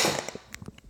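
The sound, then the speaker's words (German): A single sneeze: a loud, sharp burst of breathy noise that fades within a fraction of a second, followed by a few faint clicks and no talking. “Gesundheit.”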